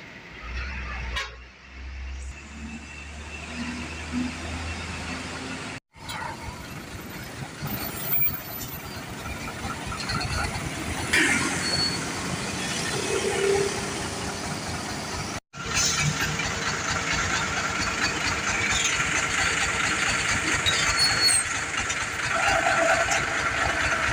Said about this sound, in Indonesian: Para supir truk berharap agar pemerintah memberikan perhatian untuk mengurai kemacetan di wilayah Pantura Timur ini.